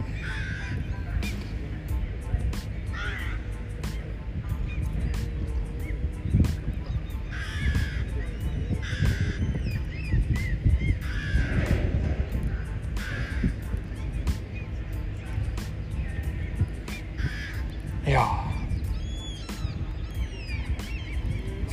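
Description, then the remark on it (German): Birds call repeatedly nearby outdoors, harsh caw-like and honking cries arriving at irregular intervals over a steady, rumbling background of open-air noise. “Vögel hier vorne.”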